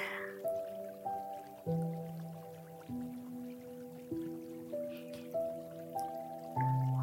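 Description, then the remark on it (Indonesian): Water drips after rain has just stopped, at an irregular, unhurried pace, each drop landing with a clear ringing tone that lingers. Roughly nine drops fall in a quiet, still setting. “Hujan yang baru saja berhenti mengguyur membuatmu berdiri sendiri dalam keadaan basah.”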